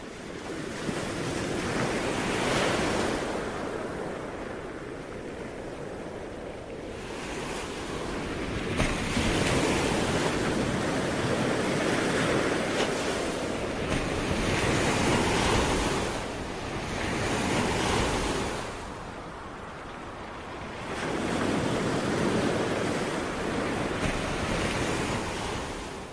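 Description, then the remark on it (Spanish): Ocean waves breaking on a shore in steady, rolling surges, each swell rising into a broad hiss of surf and then receding, with a gusty wind blowing across the microphone and no voices. “Chicos, ¿habéis estado alguna vez vosotros en el mar?”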